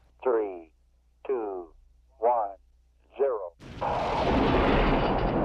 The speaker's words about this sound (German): das Getöse von Raketen, so hoch wie ein zehnstöckiges Haus. Denn hier wird der Saxeford Weltraumbahnhof gebaut. Zwei etwa Fußballfeld große Betonflächen mit den Stahlstützen, auf denen die Raketen in den Himmel ragen sollen, sind schon zu sehen.